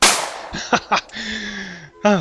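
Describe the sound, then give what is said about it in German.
A loud gunshot sound effect bursts out at the start and decays quickly, followed by a string of short, buzzy electronic tones and chirps. “Darauf sollten wir wieder einmal ins Publikum schießen, ohne den sehr offenkundigen Bezug zu sehen.”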